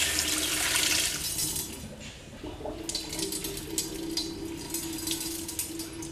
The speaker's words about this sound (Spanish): O sea, que la primera agua donde vamos a remojar nuestro arroz va a salir blanca por el almidón. Aquí vamos lavando nuestro arroz, bien lavado. Sacamos nuestra agua.